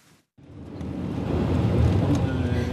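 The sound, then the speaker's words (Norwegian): A bulletproof car carrying Norway's ambassador to Palestine, Hans Jacob Frydenlund, drives on narrow rural roads in the West Bank, with a steady low rumble of engine and road noise that swells after a brief quiet start and holds loud and even. “Den skuddsikre bilen beveger seg på smale veier på landsbygda på Vestbredden.”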